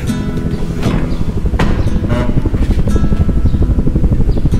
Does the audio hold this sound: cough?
no